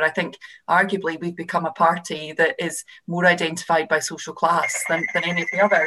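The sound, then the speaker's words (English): A telephone starts ringing near the end, a steady electronic trill cutting in over a man who keeps talking through it. “Oh, sorry, that's my phone.”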